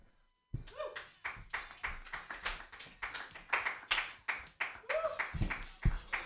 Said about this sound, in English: You got to clap for the guy, though.